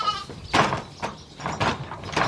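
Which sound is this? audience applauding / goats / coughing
goats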